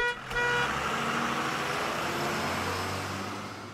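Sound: bus horn honking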